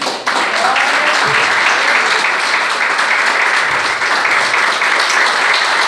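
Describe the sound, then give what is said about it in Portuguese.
Sustained audience applause, a steady wash of many hands clapping at once, loud and even throughout with no voices standing out. “Agradeço a oportunidade e as palmas a você.”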